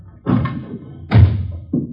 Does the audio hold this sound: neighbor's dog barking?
no